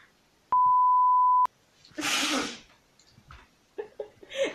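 A loud, steady censor bleep over explicit words holds one pure tone for about a second, then cuts off abruptly. A breathy burst and a few short, clipped vocal sounds follow.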